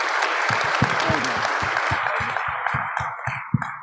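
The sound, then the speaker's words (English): An audience applauds a group of gentlemen after their comments and thoughts, with dense, steady clapping that thins out toward the end into fewer, more distinct individual claps. No one speaks over it. “let's give these gentlemen some applause because these were amazing comments and thoughts.”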